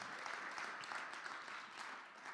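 Steady audience applause for the guests at a church service fills the whole moment, a dense wash of many hands clapping at a fairly even level, with no voices standing out.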